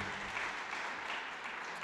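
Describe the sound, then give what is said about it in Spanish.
An audience claps hands to the Lord in a dense, steady wash of applause that stays loud and even throughout, with no voices standing out. “Puede darle palmas al Señor, hermano.”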